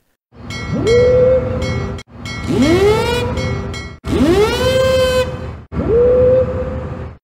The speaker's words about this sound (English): And in fact, my endless research actually led me to some MP3 files of actual ship sirens. Let's play one of them now, shall we?